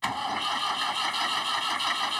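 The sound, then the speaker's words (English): A tractor engine cranks and grumbles in a steady, rough mechanical drone as its key is turned, fairly loud, continuing without catching into a clean idle. “The tractor grumbled.”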